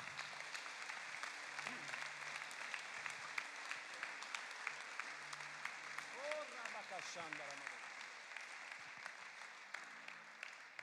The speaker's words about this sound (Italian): Facciamogli un applauso meraviglioso.